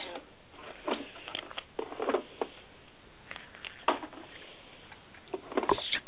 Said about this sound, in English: yeah, I don't know if you can hear me, but I'm emptying out the. We hear the baits hitting the totes right now.